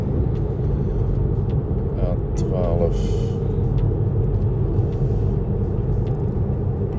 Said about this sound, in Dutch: Want hier gaan we allemaal een stukje zachter rijden met een vrachtwagen achter me.